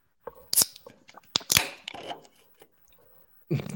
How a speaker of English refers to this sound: so snap, crackle, pop. Okay. That was a beer. That was a Busch Light.